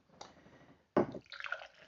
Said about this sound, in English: Pouring some right here in my Pilsner glass.